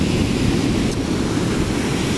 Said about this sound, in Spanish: Ahí les dejo el ruidito del mar, como siempre.